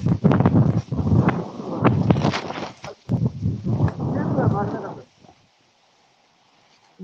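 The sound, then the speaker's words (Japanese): Strong wind buffets a microphone in loud, rumbling gusts for about five seconds, with a muffled voice mixed into the noise, then it cuts to near silence. “えー、風が強くて今マイクだったんです全部回れなかったんですね、そしたら。”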